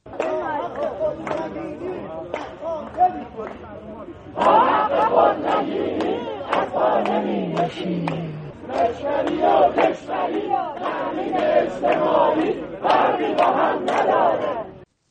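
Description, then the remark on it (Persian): A crowd of protesting retirees in Isfahan chants slogans in unison, many voices shouting in rhythmic bursts. The chanting starts somewhat subdued, then swells louder and more forceful after a few seconds and keeps going. “تجمع کنندگان در اصفهان شعارهایی دادند که با هم میشنویم.”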